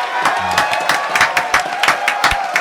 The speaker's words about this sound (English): Clap it up one more time, man, for Hum Beats chopping it up.